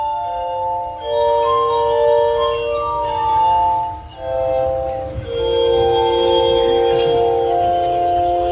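Glass armonica music, Benjamin Franklin's glass organ, plays steadily from loudspeakers, with sustained, shimmering, bell-like tones layered into soft chords that swell and overlap, pausing briefly between phrases before continuing, fairly loud.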